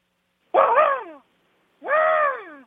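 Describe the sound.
A voice imitates an automatic impact wrench spinning off lug nuts when changing a tire: two sustained, buzzy vocal bursts, each sliding down in pitch, with a short pause between them, clear.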